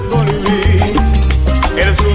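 A loud, busy stretch of Afro-Cuban jazz with a strong bass line, steady percussion hits and bright horn or flute-like melodic lines, playing continuously with no voices.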